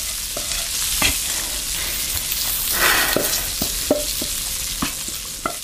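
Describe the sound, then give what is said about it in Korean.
Food sizzles and crackles steadily in hot oil at home as a mother cooks dishes, a dense hiss punctuated by sharp pops and a few clinks of a utensil against the pan, with no voices. “온 집안에 기름 냄새가 진동했다. 정말 오랜만에 들어보는 소리였다.”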